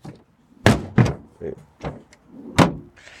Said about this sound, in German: Irgendwie scheppert es. Ich bin noch kein Experte, was Autos angeht. Irgendwie scheppert es da gerade und das wird der nächste Stuhl sein, den ich schleppe, von daher.